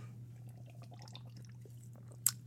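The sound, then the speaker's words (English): Someone takes a quick sip of a drink, with soft wet mouth and swallowing sounds over a steady low hum, ending in a sharp little click. “And uh, I'm gonna take a quick sip of this little uh, twisted joint I got right here.”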